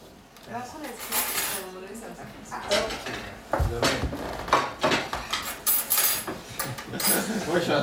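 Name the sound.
dishes and cutlery clattering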